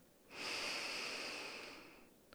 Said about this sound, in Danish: Og læg så den ene hånd på brystkassen og læg den anden hånd på maven. Og se om du kan tage nogle dybe vejrtrækninger, hvor det kun er hånden på maven, der bevæger sig, og ikke brystkassen.